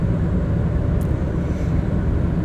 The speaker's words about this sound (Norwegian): Jeg beklager hvis det suser. Jeg eh, kjører min lille Peugeot på vei til atelieret.